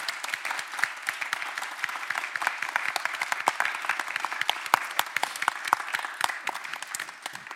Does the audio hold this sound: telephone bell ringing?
no